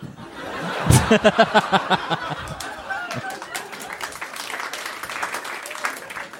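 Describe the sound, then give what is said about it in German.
A crowd breaks into applause mixed with laughter, with a burst of sharp rhythmic claps early on, then settling into steadier clapping and chatter. “ich habe auch gerade kurz über den, ich habe ihn kurz genossen, aber habe auch sehr viel gerade drüber nachgedacht, dieser Applaus.”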